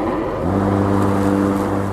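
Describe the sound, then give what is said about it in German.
A lawn mower engine drones steadily at a loud, even level, its low motor hum holding a constant pitch with a faint rise partway through. No one speaks. “müssen Gartenbesitzer raus ins Grüne, Blumen düngen, Beete wässern und eben auch den Rasen mähen, was selbst mit elektrischen Rasenmähern ganz schön laut sein kann”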